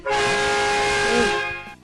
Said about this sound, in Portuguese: E aí eu meio que entro e jogo as coisas. No que eu entrei e joguei, o cara deu uma buzinada.